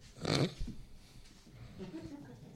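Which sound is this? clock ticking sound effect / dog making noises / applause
dog making noises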